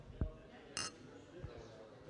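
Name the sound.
beer glasses clinking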